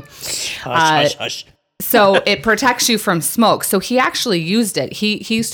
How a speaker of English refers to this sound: that's our cat helping she likes this one too